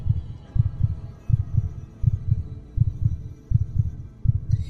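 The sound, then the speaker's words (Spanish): A muffled, rapid heartbeat of an old man: soft, low double thumps repeat steadily, dull, as if heard through padding, like a watch wrapped in cotton, with no voices over it. “en aquel momento llegó a mis oídos un resonar apagado y presuroso, como el que podía hacer un reloj envuelto en algodón.”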